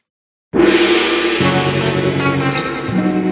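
A loud, full quiz show transition signal bursts in after a moment of silence, bright and sustained with a harmonic shift partway through; no one speaks.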